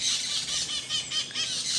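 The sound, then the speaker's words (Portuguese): A dense chorus of small birds chirping and twittering nonstop, shrill and high-pitched, with the calls overlapping in quick pulses and no one talking. “Nossa, eu estou tendo que competir com os passarinhos aqui.”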